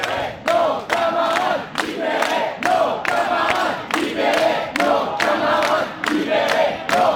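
A crowd shouts loudly in rhythmic, repeated bursts, many voices chanting together around people being stopped and checked by police, each cry separated by brief pauses in a steady cadence.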